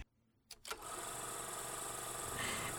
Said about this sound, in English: So, a brief summary of The Shape of Water, and my air conditioner is making a really weird sound, but I'm not going to turn it off, so sorry.